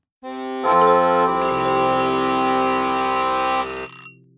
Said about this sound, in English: Well, there goes our kitchen timer